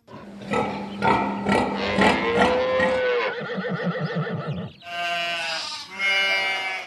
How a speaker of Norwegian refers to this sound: Jeg hørte du et lite utvalg av dyr som havner i gryten i de mange norske heimer rundt omkring.